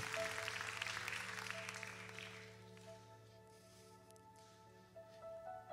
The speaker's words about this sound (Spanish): Dale fuerte aplauso a Dios.